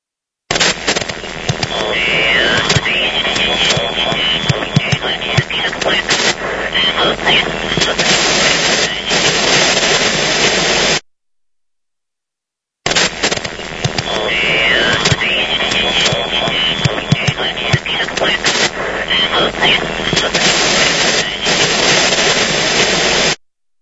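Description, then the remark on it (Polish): Dense, crackling static from an old radio receiver, with a faint, barely intelligible voice buried in the hiss; the same stretch plays twice, separated by a brief silence. “Nagranie dokonane przy pomocy starego radioodbiornika.”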